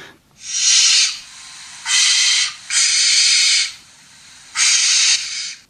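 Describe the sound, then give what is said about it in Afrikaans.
A barn owl gives four harsh, hissing screeches, each under a second long, loud, with short irregular pauses between them and no other sounds around. “Dan natuurlik die volgende een wat ehm um, meeste mense sal ken is die nonnetjiesuil.”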